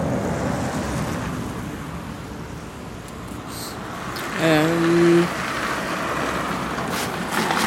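Steady street traffic rumbles at a bus stop where a person waits for the bus, a continuous wash of road noise with a brief tonal whine rising out of it midway before fading back.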